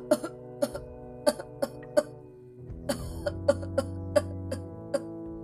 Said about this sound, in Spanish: ¿Hace mucho tiempo que tiene usted esa tos?